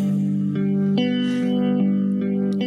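A steady, effects-laden synth tone hums on without pause in headphones, its sound sweeping back and forth from ear to ear, with faint shimmering swells and no voices.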